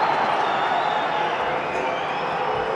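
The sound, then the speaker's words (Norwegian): A dense, steady roar of a large stadium crowd in the stands at a football match between Brann and Vålerengen, shouting and chanting continuously at a constant loud level, with no single voice standing out. “Ja, det koker litt på tribunene nå. Det er skriking og skråling.”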